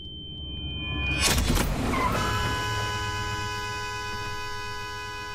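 A car crash in a TV series scene: a sudden loud, crunching impact bursts out after a low engine rumble, then steady ringing tones hang on, fading slowly, with no one speaking.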